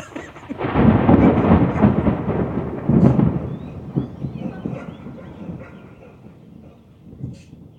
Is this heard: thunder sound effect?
yes